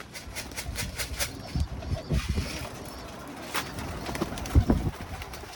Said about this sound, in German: Die Tauben stürzen sich sofort auf die Körnermischung. Nach der Arbeit, wenn ich etwas Zeit habe, dann komme ich hierher, dann lasse ich die Tauben fliegen und füttere sie.